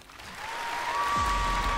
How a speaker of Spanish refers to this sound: Muy bien, muy bien. Aplauso para ti.